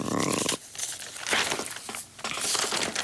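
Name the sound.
newspaper pages being turned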